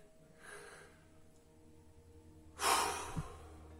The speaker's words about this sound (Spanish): Bueno. Hacemos una respiración grande.